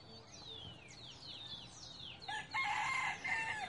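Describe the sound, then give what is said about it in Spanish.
A rooster named Claudio crows loudly, its call breaking into a harsh, drawn-out cry after a few sharp rising and falling squawks, heard alone without talking. “Amén, amén, que la tuya sea más fuerte que la del gallo Claudio.”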